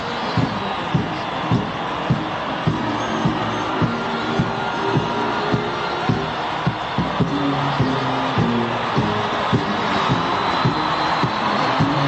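A large crowd cheers at a South African presidential inauguration as the president moves to the other side of the crowd, in a steady, dense roar that never lets up, with rhythmic low pulses like drumming or chanting beating regularly underneath.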